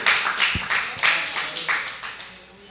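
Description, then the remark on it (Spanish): A church audience claps for God during a sermon, together in a loose, steady rhythm, sharp bright hand claps repeating about three times a second and slowly fading over a few seconds. “si usted le va a aplaudir a Dios, hágalo de verdad.”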